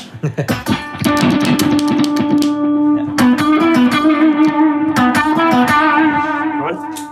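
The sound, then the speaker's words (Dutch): An electric guitar with a somewhat broken switch rings out through effects pedals, opening with a few quick plucked notes before settling into sustained, slightly distorted chords with a shimmering, modulated tone. Fairly loud. “Mijn switch is van deze gitaar wel wat kapot.”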